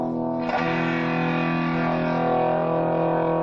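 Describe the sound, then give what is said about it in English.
A sustained electric guitar chord played through a distortion pedal that overloads the signal rings out loud, with a gritty, buzzing overdriven tone that holds steady for a few seconds with no talking. “Distortion pedal, which overloads the signal.”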